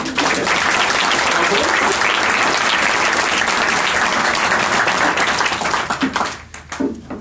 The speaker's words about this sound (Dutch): Dames en heren, mag ik een applaus voor de minister van Ingrid van Engels? Dank u wel.